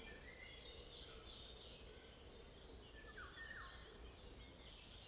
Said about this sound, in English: Staying alert to the sounds of the forest and the singing of the birds.